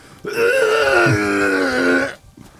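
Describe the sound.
A voice makes a loud, drawn-out raspy blast for about two seconds, a buzzy fart-like sputter imitating an explosion in a boat's engine, with no talking.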